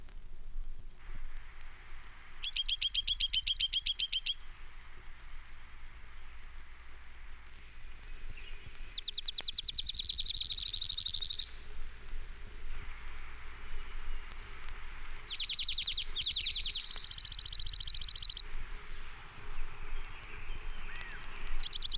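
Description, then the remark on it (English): An Oregon Junco sings a series of rapid, even trills, about four bright bursts separated by pauses, heard fairly clearly over a steady hiss of background noise. No one speaks. “Oregon Junco. Nine examples.”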